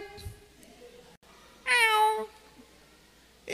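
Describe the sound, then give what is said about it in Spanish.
A single high, cat-like meow rings out clearly for about half a second, loud, against a faint hum of background noise: a lion cub's roar coming out as a meow. “Y cuando saca el rugido, le sale un miau.”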